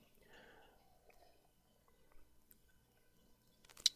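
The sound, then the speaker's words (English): Quiet sipping and slurping of cold water from a Ball mason jar, with soft wet mouth sounds, ending in a sharper click or gulp near the end. “So uh, let's take a sip together.”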